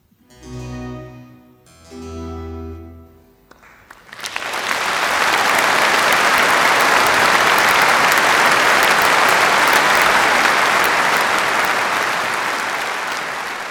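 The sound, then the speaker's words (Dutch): A final sustained musical chord of a performance of Bach's St Matthew Passion fades, then a large audience bursts into loud, steady applause that continues for about ten seconds, dense and unbroken, tapering slightly at the end. “Applaudisseren of niet applaudisseren na een Matthäus, dat is de kwestie.”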